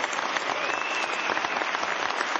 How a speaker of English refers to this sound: that was uh that's an applause right there, everybody. Nice.